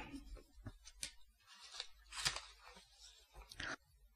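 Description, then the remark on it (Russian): Paper rustling and crinkling as an intricately folded letter, sent from Kfar Hogla, Israel, to Zaporizhzhia, Ukraine, is unfolded from its envelope, in several irregular bursts of crisp handling noise with brief pauses between, no voices. “Как-то оно тут сложено так затейливо внутри конверта.”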